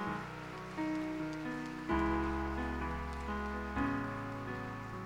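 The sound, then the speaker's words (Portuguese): A church audience claps steadily for a pastor in a dense, crackling patter, mixed with sustained keyboard chords that shift a few times. No one speaks. “E gostaria que vocês pudessem uma salva de palmas, agradecer o Senhor pela vida dele.”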